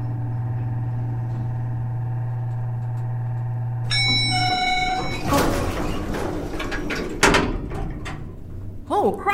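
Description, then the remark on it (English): A steady mechanical hum, then a bright chime and the rumbling slide of elevator doors opening one floor above, slightly muffled, followed by scattered clunks and rattles. “Yeah, now the door's opened above us.”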